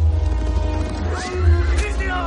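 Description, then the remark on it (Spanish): Horses galloping in a dense, rumbling rush of hooves as Sioux riders attack, with a sharp whinny rising partway through amid a busy, loud action scene. “Los Sioux atacan al galope.”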